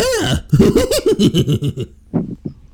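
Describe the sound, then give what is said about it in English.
A man makes a strained, gravelly cartoon-dog impression, a rapid run of throaty, warbling barks and yelps lasting about a second and a half, followed by a couple of short breathy bursts. “that sounds like a horse, not Scooby”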